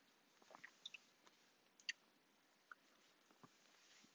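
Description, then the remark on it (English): Quiet chewing on a protein bar: scattered crisp clicks and soft sticky smacks at an irregular pace, with no talking. “I think I'll just have that protein bar.”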